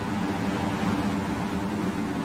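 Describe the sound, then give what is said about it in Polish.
Strong wind blows outside a building in a steady, dense roar that fills the whole clip at an even, fairly loud level, with no pauses or gusts breaking it and no voices. “Słyszysz ten silny wiatr?”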